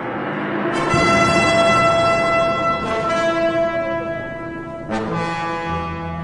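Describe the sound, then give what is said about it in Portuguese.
Trumpets blown by priests blare in long, loud, sustained blasts, with a new horn call starting roughly every two seconds and overlapping the ringing tones before it, over a low rumbling background. “Então os sacerdotes tocaram as cornetas.”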